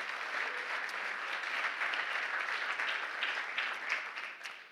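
A church audience applauds the Lord steadily, a dense wash of many hands clapping at a fairly even level for the full stretch, with scattered sharper claps poking through and no talking over it.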